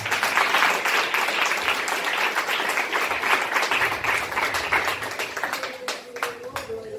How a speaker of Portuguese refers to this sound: Nós vamos pedir a bênção de Deus para a ceia, né? Uma salva de palmas, Deus que abençoe.